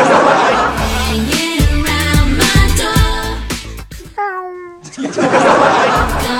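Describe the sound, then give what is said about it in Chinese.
Busy, rhythmic music with laughter-like sounds drops away for one clear, high cat meow lasting under a second, a sliding, slightly wavering tone, before the music comes back in. “然后结果说原来是他七个月的孩子啊，七个月大的孩子还没学会说话呢，就已经开始学会猫叫了。”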